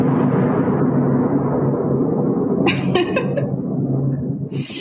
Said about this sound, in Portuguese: É todo mundo com medo desses trovões.